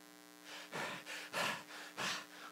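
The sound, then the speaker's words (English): Heavy, forceful panting, with about six loud rasping breaths in quick, uneven succession, with no talking. It sounds like a man imitating violent, agitated breathing. “Here's what he says it's the idea of a man's breathing violently”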